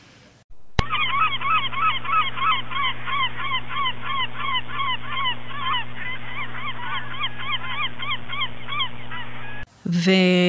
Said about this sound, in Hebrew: אפשר לשמוע שירה של אה, שחף, שזה מאוד שונה, שגם אנחנו מכירים רובנו.